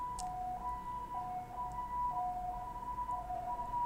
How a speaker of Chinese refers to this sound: OK，我们很同步的，我们的救护车的一个声音在这个地方响起哦，啊，就是这是我们的地表的人人们需要急救的时候呢，会有个救护车的声音哦。